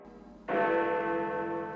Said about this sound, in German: Friedensglocke. Gussjahr 1928. Gießer Fritz Schilling Söhne. Durchmesser 2,34 Meter. Gewicht 8,3 Tonnen. Schlagton Fiss. Seine Glocken zeichnen sich durch einen außergewöhnlich reinen und sauberen Klang aus.